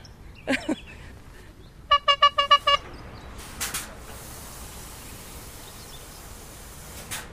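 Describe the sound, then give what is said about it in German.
A quick run of five short, bright horn toots rings out over a steady hum of traffic on the A9 motorway, at a spot where lorries park, with a couple of brief whooshing bursts of passing vehicles. “Wir sind zurück auf der A9, dort wo die Lkw parken, wo die Tracker in ihren Kabinen vor sich hindösen oder rauchen, wenn sie nicht gerade an ihren 40 Tonnen herumschrauben”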